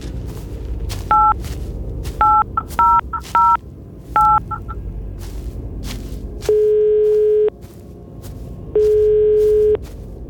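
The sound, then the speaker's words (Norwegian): A quick series of short telephone keypad beeps is dialed in uneven bursts, followed by two long, steady ringing tones with a pause between, over a low background rumble. “Jeg får ringe.”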